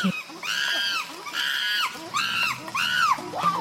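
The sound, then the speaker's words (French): Chimpanzee calls ring out through a forest in four loud, guttural, rising-and-falling shrieking bursts, one after another in a steady rhythm, the chimpanzees answering each other at a distance, with a faint scattered backdrop of forest sounds. “La forêt euh, s'emplit de sons très très forts, très gutturaux, qui se répondent comme ça et qui résonnent euh, très très loin.”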